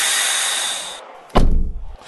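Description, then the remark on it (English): A steady airy hiss fades out, then a car door shuts with a single heavy thud that rings briefly before settling. No one speaks. “Betty! Open the door! Open the door!”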